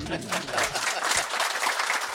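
A short burst of applause for the followers, in a hall where motorhomes are on display: a dense, steady patter of many hands clapping at moderate loudness with no voices over it.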